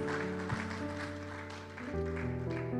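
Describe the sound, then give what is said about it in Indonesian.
An audience claps steadily in a dense, continuous wash of applause, mixed with sustained keyboard or organ chords that shift pitch throughout. “Berikan tepuk tangan bagi Tuhan.”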